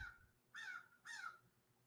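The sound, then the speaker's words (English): A large raven outside a window on a beautiful day gives two harsh, hoarse caws in quick succession, each about a third of a second long, sounding somewhat muffled. No one speaks. “There's a giant raven outside my window.”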